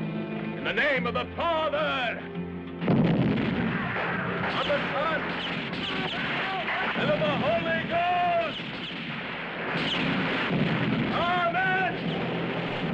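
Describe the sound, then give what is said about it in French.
Dense rumbling blasts and bursts of gunfire from a Mexican revolutionary battle scene in the film El Chuncho, screened in Le Havre, loud and continuous, with voices shouting over the din and a sharp surge of noise a few seconds in. “Ces explosions mexicaines révolutionnaires, ce sont celles que l'on entend dans le film El Chuncho projeté par l'usine au Havre à l'occasion de la venue de Daniel du fanzine Chéri Bibi.”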